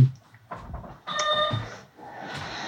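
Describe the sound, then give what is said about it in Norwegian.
A door is opened with a short clunk of the handle, then a longer scraping, creaking sweep with a faint squeaky tone, followed by soft rustle. “Gi meg en liten update der, mens jeg åpner døra her.”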